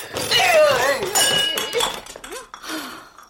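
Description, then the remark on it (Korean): A rice bowl is thrown by a mother during a meal and clatters loudly, with several sharp ringing clinks over about three seconds. Raised voices and exclamations overlap the crashes. “아, 엄마, 인간적으로 밥그릇은 던지지 말자.”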